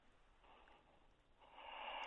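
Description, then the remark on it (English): Slow, airy nasal breathing of a man, with a snoring edge: two drawn-out breaths, the second swelling louder and rougher. No voices, only the soft rush of air. “But that's a lovely clear pattern you've got there.”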